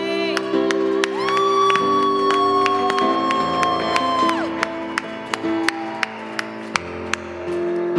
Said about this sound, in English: Come on, give a shout to God.